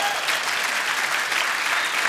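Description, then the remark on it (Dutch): An audience claps for the band a band, a dense, even wash of many hands throughout with no pauses and no voices standing out. “Ja, applaus.”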